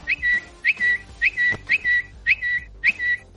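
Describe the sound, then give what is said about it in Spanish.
A person whistles a bird-like call six times in a steady rhythm, each a quick rising chirp followed by a short held high note, clear and fairly loud with no talking. “queremos observar si ha cambiado el canto del pajarito.”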